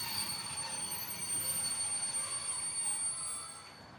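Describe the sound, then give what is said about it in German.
Train wheels screeching steel on steel as a train comes to a stop on arrival: a sustained, shrill metallic squeal over a steady rumbling hiss, holding for several seconds before fading away at the end. “Kata, Kata, vor und zurück, immer langsamer, bis der Trommelschlag mit einem kläglichen Schrei von Stahl auf Stahl zum Finale kam.”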